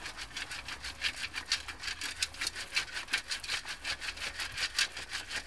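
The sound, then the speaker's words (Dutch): Compost being shaken through a garden sieve (sieve no. 7) to sift out large undecomposed pieces, a steady back-and-forth gritty scraping and rustling, about three strokes a second, moderately loud with no voices. “Nog een mooi bodempje compost liggen. Op de zeef 7 En, en waarom 7?”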